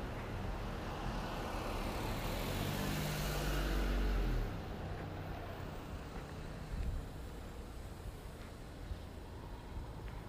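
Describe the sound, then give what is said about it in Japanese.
A car approaches with a growing engine rumble and tire noise, passes loudly, then recedes into steady outdoor background hum. “あ車が来ちゃったよけよう”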